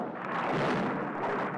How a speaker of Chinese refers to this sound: 这时候，我就会捂住耳朵，等待着闪电的兄弟登场，因为用不了多久就会听到一声巨响，那是。雷鸣，闪电的这个兄弟呀，就气势汹汹的来了。